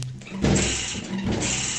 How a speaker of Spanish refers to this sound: Es una puerta, ¿qué es eso?